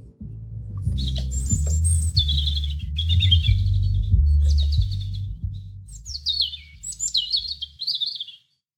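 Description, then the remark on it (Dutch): A European robin sings a clear, high, warbling song of varied trills and descending phrases over a steady low hum or rumble of background noise, without any speech. “Over de roodborst de roodborst. Ik ga hem even laten horen hoor.”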